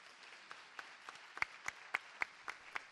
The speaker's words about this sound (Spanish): Esta tarde, el pregón del cofrade corre a cargo, y un aplauso para ella